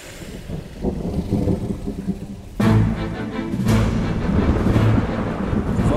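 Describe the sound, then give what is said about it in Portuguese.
A dramatic thunder effect for a thunder wave spell: low rumbling builds, then a sudden loud crack around the midpoint bursts into a sustained, roaring boom that keeps rolling to the end. No one speaks. “Você pode agora executar aquela sua magia de onda do trovão que você preparou.”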